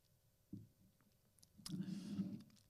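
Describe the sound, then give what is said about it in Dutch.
A soft knock, then a short slurping sip of very hot cacao that lasts under a second in an otherwise quiet setting, with no talking. “ik neem even een slokje van mijn eh, cacao, maar die is echt zo ontzettend heet.”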